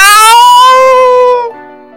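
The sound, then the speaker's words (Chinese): A single drawn-out cat meow, loud and tonal, holding a steady pitch that sags slightly before cutting off after about a second and a half. No talking accompanies it. “你那喵喵的叫声简直太难听了。”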